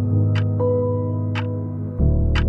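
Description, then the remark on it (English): A clock ticks steadily, three crisp ticks about one second apart, over a sustained, droning musical background that shifts pitch near the end. “He glances up at his clock.”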